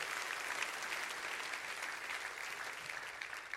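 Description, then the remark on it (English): An audience claps their hands together, a dense, steady wash of many overlapping claps sustained at an even level throughout, with no speech over it. “Can you clap your hands?”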